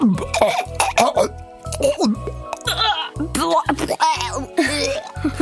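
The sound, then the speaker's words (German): A voice deliberately makes a rapid string of retching, gagging and throat-clearing noises, loud, repeated in choppy bursts for several seconds with no clear words. “Hier hört mal könnt ihr Wirkgeräusche machen.”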